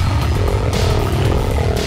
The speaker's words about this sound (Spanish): Ese sonido, este gruñido que escuchan, yo estoy utilizando mi... Estoy utilizando mis habilidades